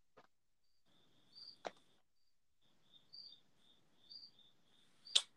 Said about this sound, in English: Crickets.